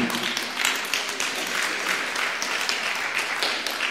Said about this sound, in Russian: Какие-то жидкие аплодисменты у вас.